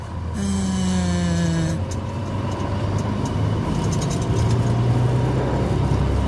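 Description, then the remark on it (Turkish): A steady, loud low engine drone fills the whole recording, like riding inside a bus, with a brief higher whining tone near the start that slides slightly downward. No one speaks. “Of şu an var ya otobüse binip Erzurum'a gidesim geldi.”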